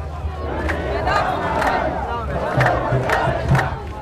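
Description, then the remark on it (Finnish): A protest crowd in Sudan shouts slogans in unison, loud rhythmic chanting with regular bursts about every half second over a dense, continuous roar of many voices. “Hän huutaa hetken ohikävelevän joukon mukana.”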